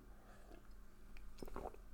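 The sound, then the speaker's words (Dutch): A quick, quiet sip of a drink: soft slurping and a brief gulp near the end, with no talking. “nou, nu zal ik, praat ik te veel over hoesten, dus neem even snel een slokje.”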